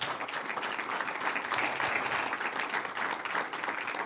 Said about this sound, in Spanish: Un aplauso a Dios.